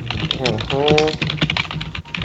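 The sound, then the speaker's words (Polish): Rapid clatter of typing on a computer keyboard, a steady run of sharp key clicks, with a brief wordless vocal murmur partway through. “Nie tak z tymi klawiaturami. Przepraszam, Muszę podnieść klawiaturę.”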